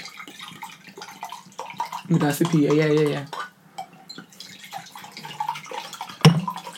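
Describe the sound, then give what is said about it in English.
Water pours into a glass for about a second, its gurgling tone rising in pitch as the glass fills, while people chat and murmur around it. “Let him pour the water first because okay.”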